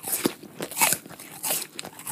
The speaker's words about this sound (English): Do you have to chew like that?